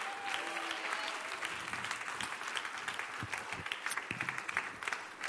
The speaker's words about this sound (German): Hey, und wenn wir schon dabei sind, wenn wir schon dabei sind, lasst uns dem Technikteam einen fetten Applaus geben. Dem Technikteam, come on.